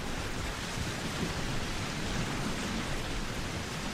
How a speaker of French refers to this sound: La mer. La pluie, quelqu'un fait Noël sous la pluie Non, la mer, t'as raison. La mer, mer.